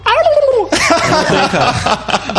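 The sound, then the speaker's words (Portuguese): A turkey gobbles loudly: a short warbling call, then a rapid, rattling burst of throaty gobbles that runs for about two seconds, with no voices. “Mas, Rafa, no Natal não é frango, Rafa, é peru.”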